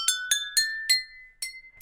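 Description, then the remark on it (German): Six quick taps on water-filled glasses ring out, each leaving a clear sustained tone that steps to a different pitch, like a short scale played without any talking. “Oh ja, ich fand den geil, vor allem den dritte Glas von links.”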